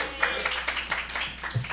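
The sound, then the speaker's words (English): Audience applause for Katie Halper at a live Katie Halper show fills the space with a dense, crackling wash of many hands clapping at once, fairly soft and steady, with voices murmuring faintly underneath. “Round of applause for Katie.”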